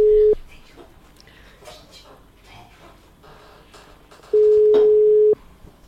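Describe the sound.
A phone's ringing tone on an outgoing call: a steady, mid-pitched beep, cut off at the start and then a full one-second tone after a pause, with faint voices murmuring in between.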